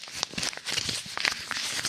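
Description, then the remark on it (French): A piece of paper is scratched and crumpled to fake an ASMR sound, in a quick, uneven burst of crisp crinkles and crackles, moderately loud and continuous for a couple of seconds with no voices. “Ah oui, un épisode sur deux maintenant, on, fait une blague sur l'ASMR et je ressors généralement, tu sais, juste un morceau de papier, tu fais comme ça”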